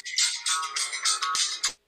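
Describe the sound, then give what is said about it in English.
A mobile phone ringtone for an incoming phone call plays a bright, repeating electronic melody in quick pulsing bursts, clear, with no voices over it, before cutting off abruptly. “take the phone call and then turn your phone off.”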